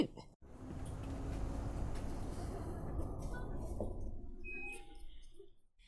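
A bus stop-request chime rings once, a short bright electronic ding near the end, after several seconds of low, steady bus engine rumble and road noise inside the vehicle.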